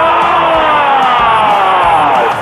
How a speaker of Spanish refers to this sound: Todos van gritando primer minuto del partido, 0 a 0 la tiene, la le pegó.